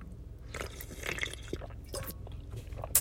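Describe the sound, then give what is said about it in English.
Soft, wet sipping of hot coffee: a few brief slurps and liquid trickles scattered over about three seconds, fairly quiet, with a sharper little click at the end and no talking. “While I sip my tea.”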